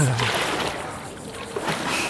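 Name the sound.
person wading into water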